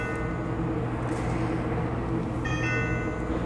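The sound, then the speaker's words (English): A bell rings with a steady, sustained metallic tone for several seconds, fairly loud, with a brighter higher ringing layer joining toward the end. No one speaks. “Oh, that bell. The eternal bell.”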